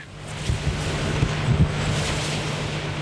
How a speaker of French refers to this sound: Je n'en avais jamais approché d'aussi près. 115 mètres de haut avec trois pales de 65 mètres chacune, ça en impose. Je sors mon micro pour enregistrer le bruit des éoliennes.